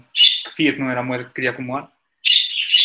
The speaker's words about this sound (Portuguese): Quem tem um pássaro a cantar? Sou eu. ah, é o objeto, desculpa, é que está é tá a misturar aqui também no som.